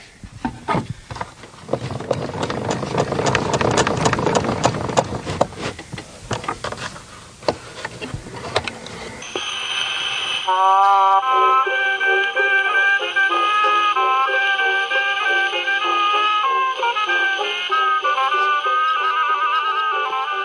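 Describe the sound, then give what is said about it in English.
A 1930s orchestra record plays on a portable suitcase record player from about 1939: roughly nine seconds of loud scratchy crackle, then a thin, tinny orchestral melody that carries on steadily over faint surface hiss. “These record players are from about 1939, and so I thought, well, we'll find something from probably the 30s.”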